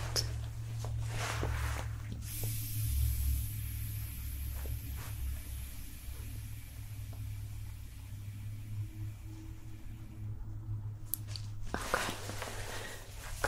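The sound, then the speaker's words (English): A blood pressure cuff, inflated to take a patient's blood pressure again, lets out air in a long, steady hiss lasting several seconds over a low droning hum. It ends with a short, sharper burst of release. No one speaks. “I'm gonna get your blood pressure again, okay? That all inflated.”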